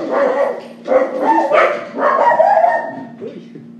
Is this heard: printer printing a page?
no